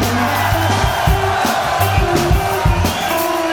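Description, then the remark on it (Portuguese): A loud, steady burst of show audience applause and cheering for a contestant lasting a few seconds, with whoops and some tonal, music-like sounds mixed into the dense noise. “O Felipe está comendo, palmas para ele.”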